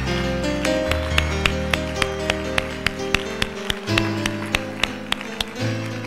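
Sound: audience clapping hands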